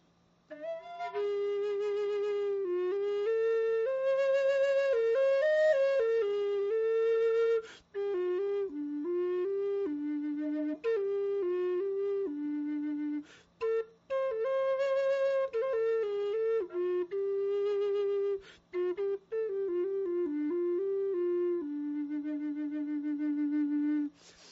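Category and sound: native American flute playing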